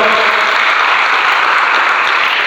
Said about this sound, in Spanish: Déselo al Señor ese aplauso, por favor.